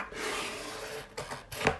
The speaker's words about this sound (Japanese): よしテープを開封開けます